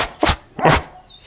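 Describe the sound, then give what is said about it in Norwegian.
A voice imitates a dog barking, giving two short, breathy "boff" sounds in quick succession, moderately loud, with no other talking. “Den kommer med et par boff til, sånn”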